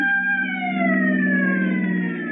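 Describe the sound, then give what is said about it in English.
A Los Angeles Fire Department fire engine siren wails loudly right outside the door, one continuous tone that slowly slides downward in pitch, with no voices over it. “Sounds like a fire.”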